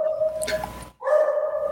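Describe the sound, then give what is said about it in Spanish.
A dog barks in two drawn-out, tonal, almost howling calls separated by a brief pause, fairly loud and with no one talking. “mi perro está ladriladre, no sé quién esté afuera”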